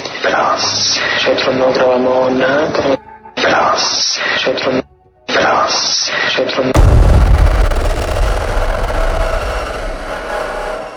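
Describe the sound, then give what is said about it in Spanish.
A voice whispers into the microphone in short bursts, seeming to say yes, then a heavy door slams in the background with a loud, deep thud that booms and rumbles on for several seconds afterward. “Bueno, se oye la voz el portazo de fondo”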